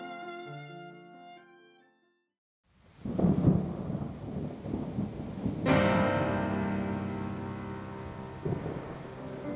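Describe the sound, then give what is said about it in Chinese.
A short melodic tune stops, then after a beat of silence a loud clap and rumble of thunder rolls into steady, hissing rain, with the music returning over the downpour, marking a rainy day in a children's telling of The Town Musicians of Bremen. No one speaks. “在某一个下雨天，一个商人带着一头驴子正在赶路。”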